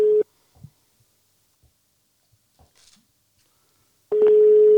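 A steady electronic phone tone sounds at a mid pitch, cuts off, and returns after a few seconds of near silence broken by faint clicks and rustles, like a call ringing out while dialing.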